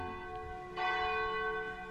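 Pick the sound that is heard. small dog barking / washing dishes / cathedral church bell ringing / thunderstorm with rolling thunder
cathedral church bell ringing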